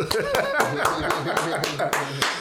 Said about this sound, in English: Can we clap for that?